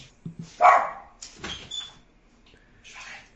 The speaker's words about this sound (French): Il y a un chien qui s'excite, là c'est qui qui a un chien Ça doit être le mien, attends.